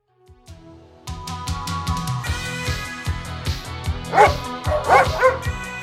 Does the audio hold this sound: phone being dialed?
no